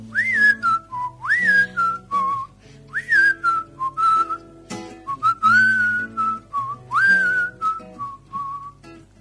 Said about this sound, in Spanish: ¿Se puede silbar en la radio?